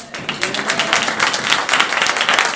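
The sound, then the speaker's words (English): A crowd gives a round of applause for a woman in attendance, with many hands clapping in a dense, continuous patter that stays fairly loud and even for a few seconds, and no voices stand out. “A serious round of applause.”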